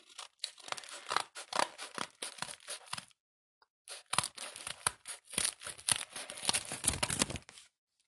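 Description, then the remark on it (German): Scissors snip through a plastic bag, cutting zigzag points into it, in a quick series of crisp cuts with rustling, pausing briefly partway before another dense run of snips. “Ich werde dafür auf meinem Handy was an einer Tüte zeigen, damit man sieht, wie ich es mache.”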